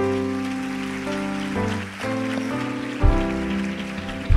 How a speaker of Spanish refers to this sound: Bien, vamos a llamar ahora con un fuerte aplauso